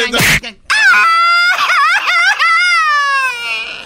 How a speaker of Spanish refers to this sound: ¡Viva México! Él no está gritando un grito mexicano, él está llorando.